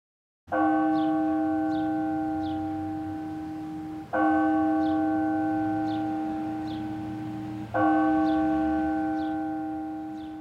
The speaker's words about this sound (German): Auf der anderen Seite des Hafens von Jastarnia läuten die Glocken des Rathauses den Mittag ein. Dabei ist es erst fünf vor zwölf. Für die Uhrzeit mögen die Glockenschläge zu früh kommen.